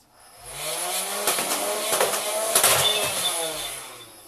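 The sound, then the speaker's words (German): A motorized Nerf Ultra One toy blaster whirs as its flywheels spin up, fires three quick shots in succession, then winds down. The sound is fairly loud, with no talking. “Das war die Ultra One Nerf.”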